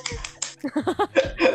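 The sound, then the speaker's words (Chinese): A few quick, sharp hand claps ring out as the hosts applaud themselves, then voices overlap with more scattered claps in a short, lively burst of applause. “对我们，我们，我们很可怜要自己鼓掌。”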